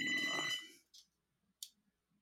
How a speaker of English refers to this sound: Is that a landline I hear? It was. So wow, you're really getting into the Friends mood, huh? All the way back right. in the '90s with the landline.